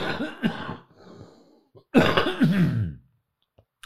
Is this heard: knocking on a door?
no